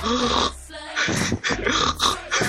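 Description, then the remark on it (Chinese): A person imitates the pig-like squeal someone suddenly let out while laughing at a funny story: a run of rough, nasal snorting bursts mixed with breathy laughter, loud and uneven over about two and a half seconds. “和朋友聊到一件很好笑的事情，笑着笑着突然发出一声猪叫，拱了一声。呃，我就在这里学一下，大概是”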